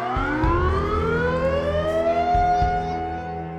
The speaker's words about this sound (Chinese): 在麦德林机场的航空雷达上，CP 二九三三号航班的小点消失了。警报声随即响起。此时，机场的工作人员都意识到发生坠机了。